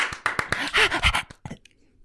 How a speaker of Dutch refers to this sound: Dat was een hond.